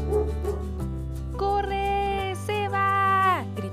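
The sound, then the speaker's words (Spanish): Three huge dogs at a guarded house bark and bay loudly as they give chase, their calls stretching into two long, howling cries over a steady low rumble, with no talking. “Pero lo que los dos amigos no habían visto era que aparte de los guardias que cuidaban la casa, también había tres perros enormes que cuando los vieron comenzaron a perseguirlos.”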